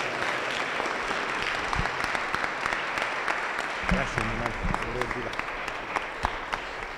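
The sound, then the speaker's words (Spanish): A church audience applauds God in a steady, dense wash of clapping that lasts throughout, fairly subdued in level, with a voice briefly audible over it partway through. “Ese aplauso no se oyó ni aquí afuera, hermano.”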